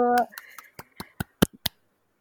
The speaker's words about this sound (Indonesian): Tepuk tangan dulu dong. Iya, tepuk tangan dulu.